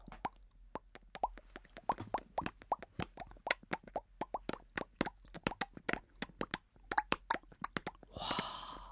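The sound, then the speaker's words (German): Raindrops imitated with mouth pops and hand taps, the last few drops as the rain slowly fades away: a steady, irregular patter of crisp drips, no voices, closing with a short breathy whoosh. “Und übrig bleiben nur noch ein paar Tropfen.”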